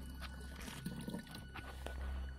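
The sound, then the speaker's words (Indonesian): Water seeping from tree roots drips slowly into a container, a few soft, irregular plinks over a low, steady outdoor hum. Quiet, with no voices. “Jadi kita nampung air dari tetesan.”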